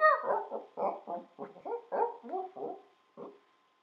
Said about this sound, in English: Okay, okay. Finally, an easy one. Okay, dog. Easy peasy.